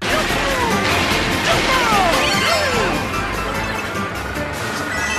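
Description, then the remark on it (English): A racing video game avatar character's voice, a light blue character whose voice depends on its color, gives a few short, pitch-sliding cartoonish vocal cries over a loud, steady wash of racing game noise with crashing impacts throughout. “And I, I guess uh, depending on the color of your me, they will have a different voice.”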